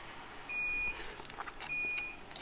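A dishwasher's finished signal: two steady, high-pitched electronic beeps, each under half a second and evenly spaced, sounding fairly softly over a background of rustling and muffled noise.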